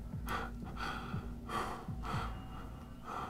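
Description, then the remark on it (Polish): Heavy, rhythmic breathing of a woman in a dark room, several loud breaths in and out with gasping edges, steady throughout with no talking. “Ty nawet nie wiesz, kiedy, jak, jakby dopiero zdążyłaś pomyśleć to, a znów jesteś w ciemności w swoim pokoju i słyszysz jej oddech.”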